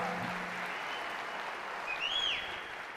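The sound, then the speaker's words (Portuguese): A church audience at Igreja das Nações applauds Jesus steadily, a dense wash of many hands clapping at an even level, with a brief high whistle or cheer rising over it near the end. “Aplauda mais forte a Jesus.”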